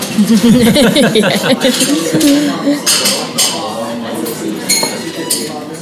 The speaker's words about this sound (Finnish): Nyt alkoi varsinkin joku lusikka sotaa tuolla.